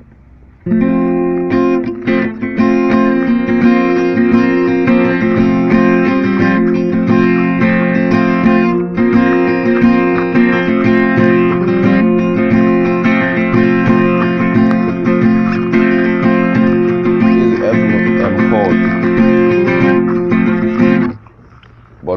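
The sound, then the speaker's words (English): A guitar strums an F chord, struck from down to up, over and over for about twenty seconds, full and steady, then stops abruptly. No one speaks. “So striking from down to up will be that's the F chord. That's the F chord.”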